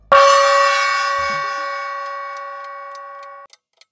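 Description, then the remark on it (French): A bright, bell-like chime rings out and slowly fades as a countdown begins, and a clock begins ticking beneath it with crisp, evenly spaced ticks that continue after the ring dies away. “Le compte à rebours commence maintenant.”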